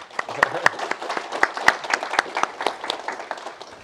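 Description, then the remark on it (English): An audience applauds steadily to thank a Principal Deputy Undersecretary after a talk and questions, with many overlapping claps forming a dense, continuous patter and a few sharper individual claps standing out. “In light of that, uh, please join me in thanking the Principal Deputy Undersecretary for coming.”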